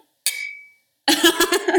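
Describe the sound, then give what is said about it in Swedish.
A single bright clink of glasses touching in a toast, with a clear ringing tone that fades over about half a second, followed by people laughing and chattering. “Ja, skål! Skål för fan!”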